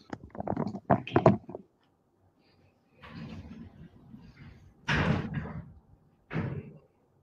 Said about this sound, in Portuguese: Eu preciso que você feche a porta de vidro aí, que é a sua porta que está aberta. Isso. Fechar.